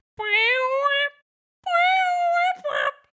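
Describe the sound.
A voice imitates a fluty, pitch-bending synth from a music track with two loud sustained tones. The first slides upward for about a second; after a short pause, the second holds steadier and ends in a quick warble.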